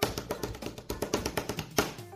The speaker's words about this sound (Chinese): 首先庆祝我们二逼青年的文艺梦想电台二零一五正式回归，此处有掌声。